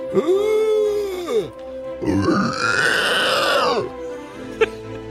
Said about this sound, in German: Wieso grunzt der eine denn? Der war früher mal in der Black Metal Band.